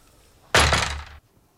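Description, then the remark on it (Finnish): A single heavy door swings shut with a loud thud and a brief rattle of its frame, the impact ringing out for about half a second before cutting off. “Minun on suljettava tämä ovi, mutta kun haluatte ulos, niin nostatte vain tämän kuulokkeen.”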